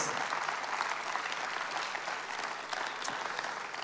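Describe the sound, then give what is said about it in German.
An audience applauds mothers on Mother's Day, a dense wash of many hands clapping at once with no breaks, holding an even, fairly loud level throughout. “Also alle Müttern, lasst uns doch den Müttern einen großen Applaus geben.”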